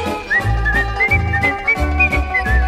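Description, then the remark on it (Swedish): Someone whistles a lively, bouncing tune over a steady instrumental accompaniment, the clear whistled melody rising and falling above a rhythmic bass line. “Först en liten vissling då vi tar. Kan du vissla Johanna?”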